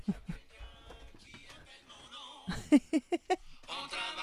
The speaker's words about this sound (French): C'est mon téléphone. Qui sonne?